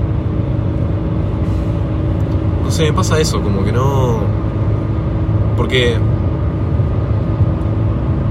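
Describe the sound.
A steady, low road rumble from inside a moving car runs unbroken from start to finish, with people talking in short bursts over the constant drone.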